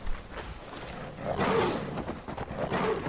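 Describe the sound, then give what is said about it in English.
Saber cats roar and snarl in a video game, a couple of rough, growling bursts rising and falling over a steady noisy background, with no talking. “This place is lousy with saber cats.”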